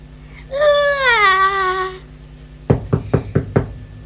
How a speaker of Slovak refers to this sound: Zaklopala, ale dnu bolo ticho.